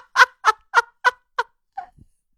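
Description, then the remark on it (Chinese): A voice imitates the sputtering breath made when a badly swollen upper lip blocks the nostrils: six quick, evenly spaced puffing bursts that fade in loudness, ending with a soft low thud. “就是我的上嘴唇已经把我的鼻孔堵住了，就是我连呼吸，我一喘气儿都会发出那种突突突突突突的声音。”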